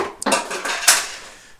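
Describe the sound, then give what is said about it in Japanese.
A clothes hanger drops and clatters, giving a few sharp, bright clacks in quick succession followed by a fading rattle, loud against an otherwise quiet background with no talking. “ごめんなんかハンガーが落っこった”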